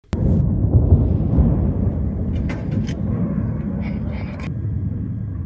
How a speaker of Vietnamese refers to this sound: thủ đô Sana của Yemen một lần nữa vang rền các vụ nổ và âm thanh của nhiều cuộc không kích của lực lượng Hoa Kỳ và Anh Quốc.